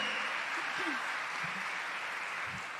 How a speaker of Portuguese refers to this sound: Aplauda o Senhor porque Ele é digno.